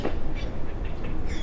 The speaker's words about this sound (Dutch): Dus, ja, je hoort de vogels op de achtergrond, je ziet, eh, je ziet het blauwe water, superblauwe lucht.